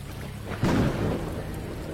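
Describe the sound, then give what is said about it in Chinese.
A sharp, loud thunderclap from a lightning strike bursts out after a steady hiss of rain, rolling into a deep rumble that fades back beneath the rain within a second. No voices. “一道闪电下来，分割了天空，照亮了周围。”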